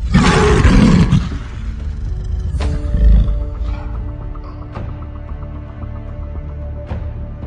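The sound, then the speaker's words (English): A lion gives one loud, rumbling roar, then fades out as steady sustained tones and occasional sharp taps carry on behind it. “My name is the Lion of Judah.”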